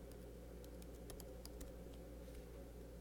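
Quick, irregular clicking of keys on a computer keyboard as someone types up MLB standings, fairly quiet, over a steady low hum with no one speaking.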